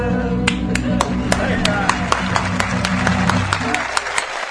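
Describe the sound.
An audience applauds, many hands clapping in a dense, uneven patter that holds steady for several seconds over a low murmur of crowd voices.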